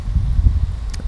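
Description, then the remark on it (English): Steady low rumble of wind buffeting the microphone outdoors, with faint rustling and a brief soft hiss near the end, fairly loud and continuous with no talking. “It is a little windy outside. I know that you can hear it in the background, but yeah, it's a cool day actually.”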